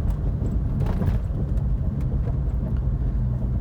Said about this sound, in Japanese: この走行音もこのぐらいがなんとか抑えられてたら実際の耳で聞こえてくる音結構この車うるさいんですよねなのでこの音がマイクでどのぐらい拾っちゃってるのかっていうのが気になりますが